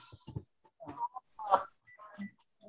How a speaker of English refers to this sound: Uh, just a minute. Sorry about that. Uh, phone rang.